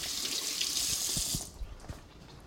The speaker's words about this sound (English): Okay, so mm, now I have to wash my hands. Dang it.